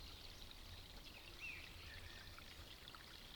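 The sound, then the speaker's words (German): A small forest stream, deep in the woods, burbles and trickles steadily nearby, a continuous soft wash of flowing water with a faint brief chirp partway through and no voices. “Ich habe einen Platz neben einem kleinen Bach, Bächlein, glaube ich, sagt man, ein kleines Bächlein gefunden.”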